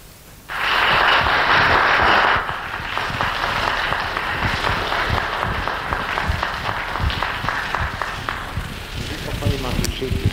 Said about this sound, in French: applaudissements qui me montrent que j'ai devant moi non seulement un auditoire, mais enfin des sympathies réunies je m'excuse de ne pas y répondre autant que je voudrais en ce moment-ci